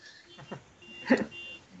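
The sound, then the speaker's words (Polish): A car alarm sounds faintly from outside in Bemowo, thin steady electronic tones from a parked car, with a couple of brief louder bursts breaking through partway. “Przepraszam, ale alarm samochodowy właśnie.”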